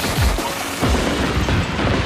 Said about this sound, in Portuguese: E a lenda diz que quando o fumo da explosão dos 47 foguetes assentou, nunca mais ninguém viu nem o Anhu, nem a cadeira.